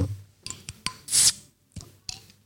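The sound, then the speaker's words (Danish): A bottle labelled 'smagen af et yndigt land' being opened: a few sharp clicks and taps of handling, then a brief bright hiss of released gas, followed by more light glassy knocks. No one speaks. “Skal vi øh, åbne den? Vil du ikke have fornøjelsen?”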